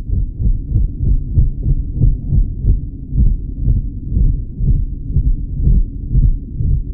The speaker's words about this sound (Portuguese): As baleias mink têm um canto que soa como um pulso grave, mais do que ouvido. Este é um som que sentimos. É como se o nosso corpo vibrasse com ele.